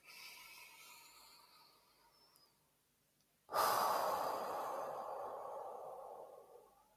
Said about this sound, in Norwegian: Vi kan puste inn en, eh, en gang til.